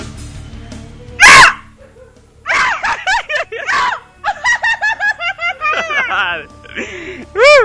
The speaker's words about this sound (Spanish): El grito. ¿Cómo lo, ¿Cómo lo oyen? ¿Cómo lo oyen? Necesitan aguantar más, ¿no? Los gritos necesitan aguantar más.